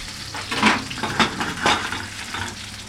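Steady sizzling of bread frying in a pan, a broad crackling hiss with a few louder bursts of spatter and faint utensil scraping, with no voices.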